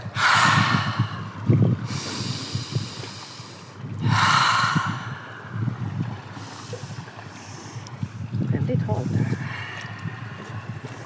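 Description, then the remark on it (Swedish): Heavy, sharp gasping breaths of a person going down the steps of a jetty into cold water, loud, in uneven bursts of several strong inhales and exhales, with quieter breathing and faint splashy rustle between them. “Eh, jag brukar försöka andas lugnt när jag går i.”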